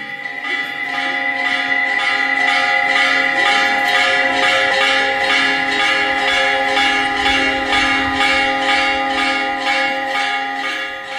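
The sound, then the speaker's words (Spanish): Bells of the parish church of Nuestra Señora del Rosario de Chiquinquirá ring out loud in a steady, repeating peal on a cool morning at 15 degrees, their overlapping tones sustaining and blending into a continuous metallic wash with no voices. “Entre el sonido de las chicharras llamando a su compañera en el parque principal y el sonido de las campanas de la parroquia Nuestra Señora del Rosario de Chiquinquirá, vamos conociendo la historia y la belleza de este pueblo.”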